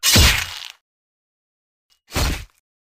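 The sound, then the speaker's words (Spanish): A heavy greatsword strike lands with a loud, meaty thwack as Galar decapitates a kneeling beast, followed by a pause and then a second, shorter slicing hit. No voices, just the two forceful impacts. “La bestia gritó y se arrodilló tratando de devolver las tripas a su interior, momento en el que Galar aprovechó para decapitarla.”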